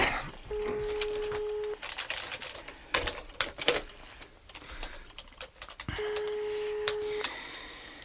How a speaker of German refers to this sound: Ach, nimmt keiner ab. Hm, vielleicht ist sie im Garten und, und hört das Telefon nicht.